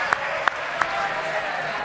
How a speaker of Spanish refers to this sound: Eh, sí. Un aplauso para Rafael.